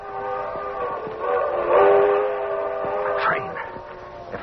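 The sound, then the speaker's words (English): A train rumbles past while its whistle sounds in long, sustained, chord-like blasts, swelling louder midway, with no talking over it. “can make that train.”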